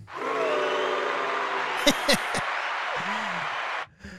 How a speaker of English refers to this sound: got a boo and an applause with that one.